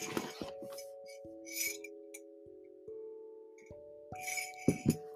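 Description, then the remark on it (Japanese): A glass clinks repeatedly while someone takes a drink, with a dozen or so irregular taps, each leaving a faint bright ringing tone that lingers between hits. No one speaks. “あちょっとここでドリンクを飲みます。”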